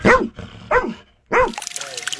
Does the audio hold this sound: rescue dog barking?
yes